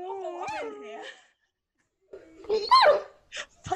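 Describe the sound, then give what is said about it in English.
A dog whimpers with a high, wavering whine, falls silent for a moment, then lets out a cluster of sharp barks and yips, loud and alone. “it's a twenty-second sound effect.”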